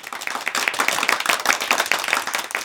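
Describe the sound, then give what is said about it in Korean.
A group of people applauding someone who took first place in the final evaluation of an advanced sign language course, a dense steady patter of many hands clapping at once, sustained throughout with no voices standing out. “결국 수화 강좌 고급반의 마지막 평가에서 1등을 했고 사람들에게 박수를 받았다.”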